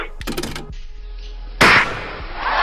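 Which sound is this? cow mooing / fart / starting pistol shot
starting pistol shot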